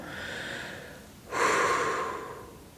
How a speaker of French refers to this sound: Ok, je prends un petit temps de respiration.